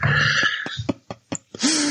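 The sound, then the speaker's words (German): A pug dog snoring: a drawn-out wheezy whine, then a run of six short raspy snorts about a quarter second apart, ending in another rough, whistling breath. “Du musst jetzt, glaube ich, nochmal kurz erklären, wo das Schnarchen herkommt.”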